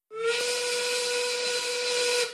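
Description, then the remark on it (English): A loud, steady 1930s factory steam work whistle blasts for about two seconds, a sustained shrill tone layered with breathy hiss, starting abruptly and cutting off at the end. “You've made me 1930s work whistle angry!”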